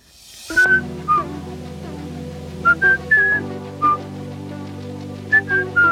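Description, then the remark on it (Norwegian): A person whistles a short, halting tune of clear, high notes over a steady low background hum, with brief pauses between phrases. “Eh, det var en glede å kunne få høre deg plystre.”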